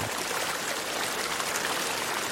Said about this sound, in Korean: 이게 물량이 많네. 이게 물량이 많아. 아. 정답은 바로 지금 들었던 2번. 2번. 다시 한번 들어보겠습니다. 2번 이 소리가 지리산 뱀사골 물소리였고요.